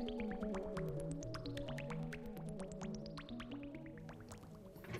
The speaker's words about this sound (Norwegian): vil dråpene sprette opp og ned, akkurat som om de hoppet på trampoline. Og selv om vanndråpene kanskje ikke føler glede når de hopper på den hydrofobe overflaten, så blir i hvert fall jeg glad når jeg ser de spredt rundt som småunger på 17. mai.